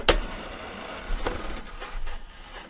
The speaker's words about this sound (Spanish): Tú jalas la palanca y te escoges un dulce.